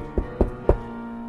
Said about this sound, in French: Lorsque je me suis présenté devant la chambre, j'ai frappé doucement à la porte, ne voulant alerter aucune des personnes qui se trouvaient à cet étage, qui dormaient sans doute.